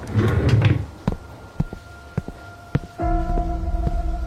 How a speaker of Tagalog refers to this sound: Mabilis na tumayo si Papa at pinagbuksan ng pinto ang kung sino mang kumakatok.